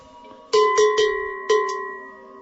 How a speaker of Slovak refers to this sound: Počuli sme plechový zvonec. Nech má akýkoľvek tvar, nech je na kadečo, či na ovečku, či na dobytok, je to zvonec.